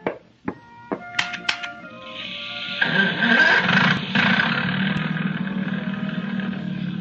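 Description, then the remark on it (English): A boat motor coughs through a few sharp cranks and sputters, then catches and settles into a steady, loud rumbling drone that keeps running to the end. “Wait till you hear that motor purr.”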